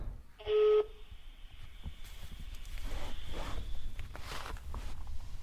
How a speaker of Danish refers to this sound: Nu jeg prøver lige at ringe til Simon igen